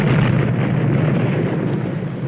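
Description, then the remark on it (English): A dynamite explosion roars on as a dense, loud rumble with heavy low end, holding steady for a couple of seconds without a sharp separate bang. No voices. “when that dynamite goes off, it makes a racket, don't it?”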